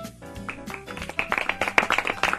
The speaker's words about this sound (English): Polite golf clap.